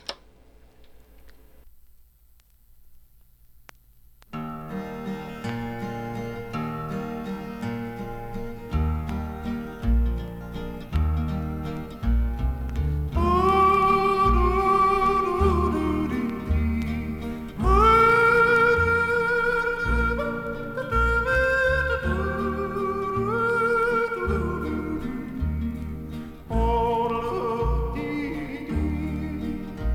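A country song begins after a few seconds of near silence with a steady instrumental backing, then a high, sustained singing voice enters, swooping and leaping between pitches in a yodel.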